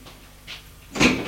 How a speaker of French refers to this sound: Il ouvre la porte